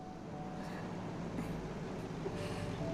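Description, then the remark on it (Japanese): A bus engine rumbles steadily as the bus arrives, a low, constant drone with faint mechanical hiss on top and no clear voices. “ああらバスが来たわ”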